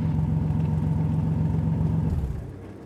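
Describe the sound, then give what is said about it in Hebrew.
A Toyota car engine on a lonely, dark road idles with a steady, droning hum for about two seconds, then sputters and winds down as it stalls, leaving a fainter low rumble. “לפתע, בלי התראה מוקדמת, באמצע כביש בודד וחשוך, המנוע של הטויוטה שלי הפסיק לעבוד.”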